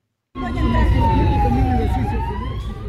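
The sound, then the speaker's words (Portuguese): A loud emergency siren holds a long, slowly falling wail over dense street noise and low traffic rumble during street unrest in Ecuador after the assassination of a presidential candidate, continuous throughout, with no break in the tone. “Escutamos aqui em fundo eh, um som da Associated France Press, desta agitação nas ruas eh, depois da morte deste candidato eh, presidencial.”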